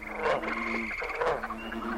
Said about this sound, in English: Oh my god. They're frogs. Frogs. Standing on their back legs. At least ten feet high. And they're walking this way rubbing their bellies.